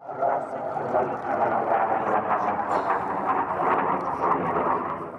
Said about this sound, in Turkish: Savunma Sanayi Başkanlığı bünyesinde yürütülen projeler kapsamında başkent Ankara'da F-16 savaş uçakları başta olmak üzere hava araçları dün kent üzerinde uçtu. Yüksek ve alçak irtifada uçan F-16'lar kameralara böyle yansıdı.